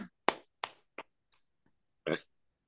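A few scattered, sharp hand claps from a small audience applauding the week's number two agent overall: three distinct ones then softer taps, followed by a louder, longer burst near the end. No talking is heard.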